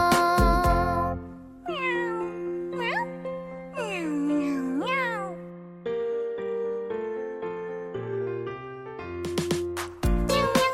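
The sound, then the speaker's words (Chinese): A voice imitates a cat's meowing in a run of sliding, high, meow-like glides, sung over steady musical backing with held notes and a few sharp percussive hits. “喵喵喵喵喵。”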